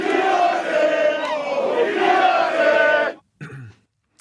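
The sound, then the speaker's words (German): A large crowd of football fans chants loudly in unison against their own club's leadership, a dense roar of voices for about three seconds, then it cuts off abruptly and a brief voice fragment follows. “Äh, da wird es auch skandiert, aber diesmal geht es äh, gegen die eigene Führung.”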